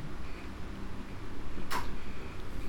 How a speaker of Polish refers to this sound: Czajnik się wyłączył,